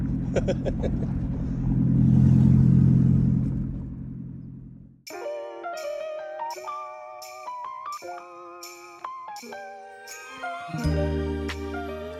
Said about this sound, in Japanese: もうちょっとしたいい音をするちっちゃいスポーツカーなんですよ意外に音が良くて